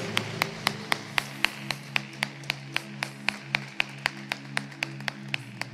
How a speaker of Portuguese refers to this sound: pode aplaudir o Senhor? Aleluia.